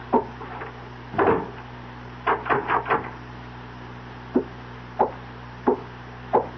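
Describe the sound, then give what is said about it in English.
A wooden door thuds shut, followed by a quick run of rattling clicks and then a few evenly spaced metallic clicks as a key turns in the lock. No voices. “Turn the key in the door after I leave.”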